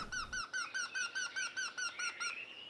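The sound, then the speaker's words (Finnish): A male and female Eurasian wryneck pair, recorded in spring on the shores of the Arrajoki in Nastola, give a steady series of about a dozen ringing, nasal piping notes, the two birds' calls overlapping toward the end, clear with no talking. “Tässä äänitteessä piipittää sekä koiras että naaras.”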